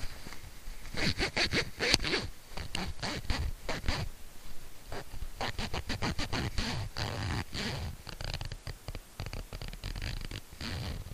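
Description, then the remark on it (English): Continuous rubbing and scratching of a clip-on microphone against the zipper of a pair of pants, with rapid irregular metallic rasps and thumps filling the whole stretch, loud and right against the mic, no talking. “And this has been a microphone rubbing against my zipper.”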